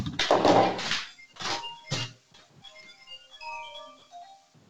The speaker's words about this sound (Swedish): Det är någon som ringer och stör här. Vänta. Sorry.